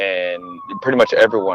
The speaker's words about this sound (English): Sorry for the sirens. Back I'm sure in you guys can probably hear it. yeah, I'm in downtown, freaking trying to get through traffic. I don't know. It's like a damn. I don't know what's going on. They're literally right here.